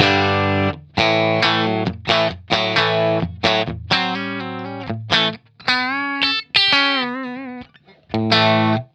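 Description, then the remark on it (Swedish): Electric guitar played through a compressor pedal, a choppy riff of short chords and bends with a compressed, squashed tone, sustained and even in level, loud with no voices. “Nu hör ni också att ljudet är lite mer squashat, eller hur?”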